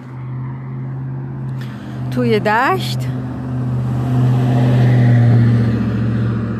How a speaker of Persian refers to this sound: بله چرا ماشین میاد